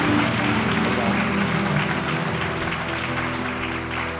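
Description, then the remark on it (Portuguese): A crowd breaks into sustained applause for the Lord at night, steady dense clapping at an even loudness for several seconds, with a low background hum underneath and no clear voices standing out. “Ei, toma posse, dá um aplauso ao Senhor hoje à noite.”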